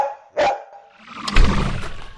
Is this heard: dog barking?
yes